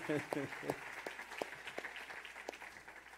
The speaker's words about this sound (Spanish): ¿Listos? Bueno, un aplauso al Señor por cada uno de ellos.